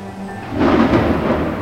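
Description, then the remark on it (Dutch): A stormy roar swells up after a brief pause and stays loud, a dense rush of wind noise over a deep low rumble: an autumn storm with gusting wind and thunder, no voices. “Pittig herfststormpje hoor.”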